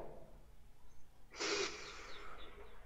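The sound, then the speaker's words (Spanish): A single deep breath: a sudden, forceful airy rush followed by a softer, fading exhale, with no talking. “Ah, tomamos una respiración profunda, por favor.”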